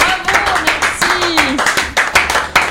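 Lively applause: a steady flurry of overlapping hand claps throughout, loud and crisp, with a voice briefly calling out over the clapping partway through.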